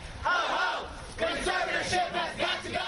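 A crowd of fans chants together at a protest outdoors in loud, rhythmic bursts, voices rising and falling in repeated shouted phrases, with a dense, echoing background of many voices.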